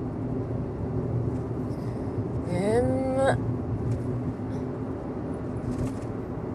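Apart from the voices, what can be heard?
car driving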